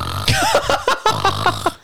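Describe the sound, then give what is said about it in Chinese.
A voice imitates someone snoring in a guest room with a quick run of about seven rough, throaty bursts, loud and fairly regular, with brief breaks between them. “打呼声啊！”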